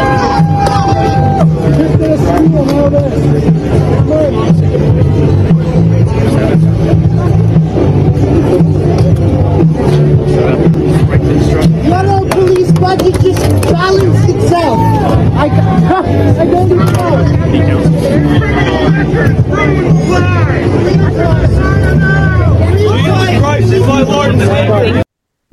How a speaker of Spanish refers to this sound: y honestamente no sé en qué idioma hablan en el background, pero me interesaría mucho escuchar lo que dicen.